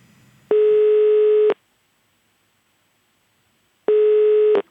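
Two steady, buzzing telephone ringback tones from an outgoing call to comedian Morten Ramm, each lasting about a second and separated by a long silent pause, heard clearly on their own.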